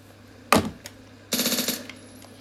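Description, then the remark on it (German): A video game Uzi submachine gun, called the automatic pistol (Automatikpistole), fires a single loud crack, then after a pause lets off a rapid burst of shots lasting under a second, bright and harsh, with no voices. “Ich habe die neue Uzi. Die heißt Automatikpistole.”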